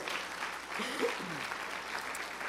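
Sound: audience applauding loudly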